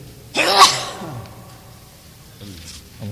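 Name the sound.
a sneeze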